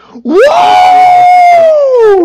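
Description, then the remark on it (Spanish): A person loudly imitates the Krayt dragon cry from Star Wars, the sound Ben Kenobi makes to scare off attackers: one long wailing note that swoops up sharply, holds steady for nearly two seconds, then slides down at the end, alone. “El, el grito, bueno, el, el, sonido que hace el Dragon Crate es el mismo que hace Ben Kenobi para espantar a los yaguas cuando están atacando a...”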